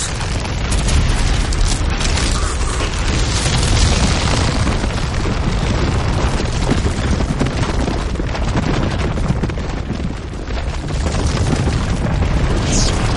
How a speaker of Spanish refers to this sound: El terreno se agrieta abriendo un precipicio entre ambos.